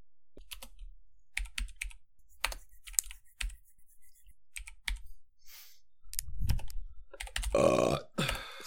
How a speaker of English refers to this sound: Oh, oh, the burp? Yeah. No, that's just drinking water. I get gassy when I drink a lot of water.